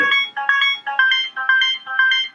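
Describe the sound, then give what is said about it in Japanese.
A bright, buzzy synthesizer preset sound plays short repeating two-note bursts, about five pulses in a steady bouncing rhythm, clear with no voices. “これ、プリセットの音これは、プリセットの音っすね。”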